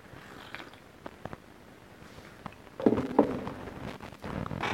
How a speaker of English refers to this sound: Let me have another sip of coffee and I'll try to fucking struggle through this some more.